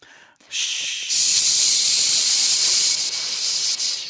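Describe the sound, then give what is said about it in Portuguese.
Everyone imitates rainfall with their mouths: a steady breathy hiss that starts softly, swells louder after a second and holds as a continuous shushing wash, with no talking. “Todo mundo fazendo barulho de chuva com a boca, então.”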